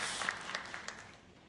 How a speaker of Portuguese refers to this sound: Gente, se é para Jesus, você pode aplaudir, porque é Ele que faz novas todas as coisas.